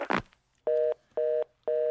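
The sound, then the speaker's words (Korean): A phone call ends with a short clunk, followed by three evenly spaced electronic beeps of a steady hang-up tone, clear, with silence between them. “전화를 끊고 화가 났어요.”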